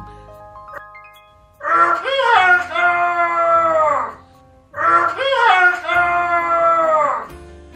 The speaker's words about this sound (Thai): พ่อไก่แดงดีใจมาก รีบให้ลูกเจี๊ยบขี่หลัง แล้วพาบินขึ้นขอนไม้ โกงคอขันเสียงก้องกังวานกว่าเดิม